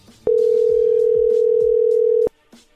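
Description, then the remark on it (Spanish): A telephone dial tone while a call is being redialed plays as one loud, steady, unbroken mid-low pitch for about two seconds, then cuts off abruptly, with faint background noises underneath. “Le vamos a marcar de nuevo, ¿ok?”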